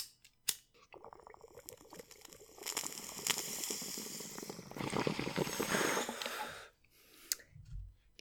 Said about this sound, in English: So this one's for you. One bong load just for you.